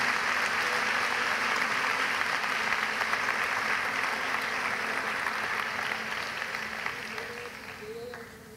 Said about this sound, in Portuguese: Quantos podem dizer amém e dar um aplauso bem forte ao Senhor, Rei dos Reis, nesta casa, neste dia?